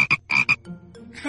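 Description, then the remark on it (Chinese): A frog, introduced as the little frog Guagua, croaks in four quick, raspy bursts, paired two and two, then a softer, lower trailing croak fades out. No voices. “Hello，Hello，小朋友，你们好，我是小青蛙呱呱。”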